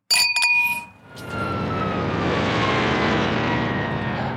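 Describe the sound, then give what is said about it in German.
Glasses clink together in a toast in a quick cluster of bright taps, leaving a clear ringing tone that fades as a steady rushing background noise takes over for the rest. “So, jetzt können wir trinken. Ich, und deshalb sagen wir. Prost! Prost! Prost. Ah, oh. schönes Geräusch.”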